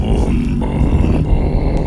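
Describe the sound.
A voice growls a low, rumbling imitation of a normal motorcycle engine, a steady throaty drone held for about two seconds with slight pulsing, loud.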